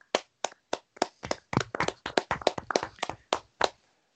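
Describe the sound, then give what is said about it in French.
Brief applause: about seventeen sharp, uneven hand claps over four seconds, thin like one or two people clapping, starting sparse and then quickening before stopping, with no talking. “Et là, encore une fois, un upset, messieurs, applaudissements, parce que alors là, c'était euh, upset sur upset, là, pour le coup.”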